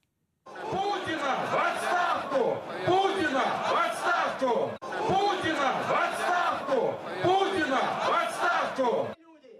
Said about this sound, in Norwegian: Putin må gå, Putin må gå, ropte demonstrantene taktfast i sentrum av Moskva for fem år siden. Det var påstander om omfattende valgfusk som fikk svært store menneskemengder til å protestere i sentrum av den russiske hovedstaden.